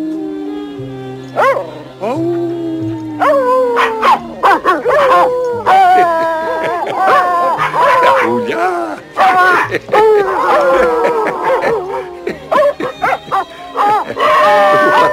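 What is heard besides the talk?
dogs howling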